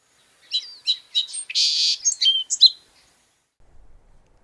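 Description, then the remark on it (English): A song sparrow sings one clear song: a few sharp introductory notes, a dense buzzy burst, then quick chirping phrases before it stops, with only faint low rumbling afterward. “Part 2 on Song Sparrows focusing on their songs, habitat, evolutionary history and much much more.”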